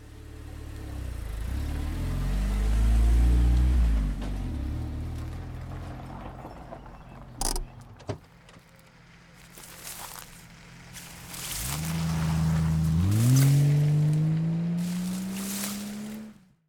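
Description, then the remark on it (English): A tourist's car engine revs up and pulls away onto the road, its pitch rising and falling as it drives past, with a few clattering knocks in between and another engine swelling near the end. “So they pile into the tourist's car and hit the road.”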